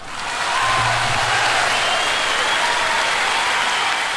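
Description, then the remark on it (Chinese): Sustained audience applause for an entrepreneur, a dense, steady wash of many hands clapping at full volume throughout, rising quickly at the start and holding without pause. No one speaks. “把掌声送给这样一个热爱生活和热爱事业的男人啊！”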